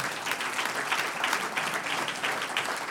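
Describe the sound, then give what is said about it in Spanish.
A church audience bursts into steady, sustained applause for the Lord during a service, many hands clapping in a dense, continuous patter at an even loudness throughout, with no voices standing out. “Un aplauso al Señor.”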